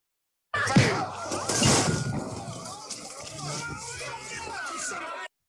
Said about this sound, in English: That's when Eugene got punched in the face at the bar. Actually, Eugene ducked the punch, but yeah, that's the punch. Uh, yeah, he ducks the punch and he hits the guy behind him,